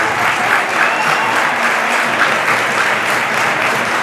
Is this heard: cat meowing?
no